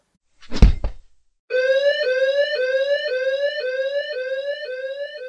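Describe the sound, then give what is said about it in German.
A heavy thud as a body falls over a fence into a garden, then after a brief pause a house burglar alarm starts up, repeating a rapid rising whoop over and over, steady. “Als die Leiche über den Zaun in Jennifers Garten fiel, ging prompt die Alarmanlage los.”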